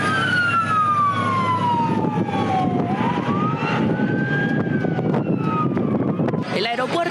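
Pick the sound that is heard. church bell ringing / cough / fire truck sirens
fire truck sirens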